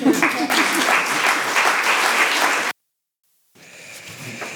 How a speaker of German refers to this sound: So. so, jetzt dürfen Sie klatschen.